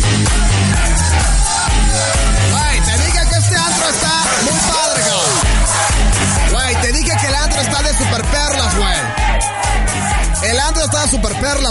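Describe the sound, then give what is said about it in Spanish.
A loud crowd at the NMR nightclub shouting and cheering over pounding dance music with a steady, heavy bass beat, voices blending into a constant roar with occasional whoops and yells. “Y la música, todo lo que da. Con la gente gritando.”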